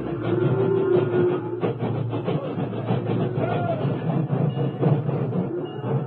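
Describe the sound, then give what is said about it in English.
At sunset, a railway locomotive backs slowly into position toward a line of railroad cars loaded with cattle, a steady rumble with clanking and metallic clatter running continuously for several seconds. “The doors were closed, and then, at sunset, an engine backed into position.”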